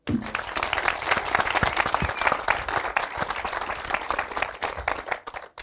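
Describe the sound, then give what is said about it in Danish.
An audience bursts into sustained applause for itself, many hands clapping densely and steadily for several seconds before it begins to thin out near the end. “I har været med til at gøre det til en stor oplevelse, i hvert fald for os, så giv også lige jer selv en stor hånd.”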